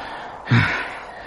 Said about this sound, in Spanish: Pablo y el farero llegaron jadeantes al castillo.